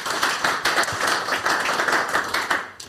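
An audience at a live evening show applauds steadily, a dense patter of many hands clapping at once that holds at an even, fairly loud level for the whole stretch, with no voices on top.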